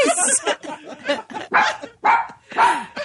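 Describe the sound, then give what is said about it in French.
A dog named Cachemire barks repeatedly, a run of short yappy sounds building to three loud, sharp barks spaced about half a second apart. “C'est mon chien Cachemire!”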